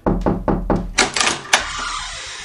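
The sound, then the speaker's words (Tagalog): Four firm knocks on a house door by the landlady in a quick, even rhythm, followed by the door being opened with a clatter and a sharp thud, then a faint hiss of room noise. “buksan mo nga itong pinto.”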